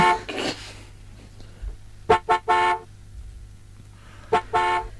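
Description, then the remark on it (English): Car horns honk in short bursts in a drive-through queue at Dural McDonald's, where a man has fallen asleep: a quick double toot, then a longer blast, and after a pause another short toot and sustained honk, loud and harmonic over a low idling engine hum. “It's causing plenty of frustration at Dural McDonald's as cars idle in the queue, beeping as you”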